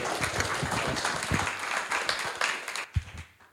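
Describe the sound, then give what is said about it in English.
A church audience applauding together in Jesus' name to welcome a visiting guest, a dense, steady wash of clapping that holds for a few seconds before thinning out, with a louder single clap near the end. “and let's give him a hand clap in Jesus' name as he's here.”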